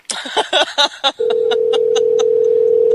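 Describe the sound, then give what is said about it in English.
A phone line being redialed to reconnect a dropped caller during a radio broadcast: a quick flurry of dialing tones, then a steady, fairly loud line tone that holds, with faint regular clicks ticking beneath it. No one speaks. “Hold on, so we can get her back on the line here. It's a little. Uh, it's going to be a little awkward ringing, folks.”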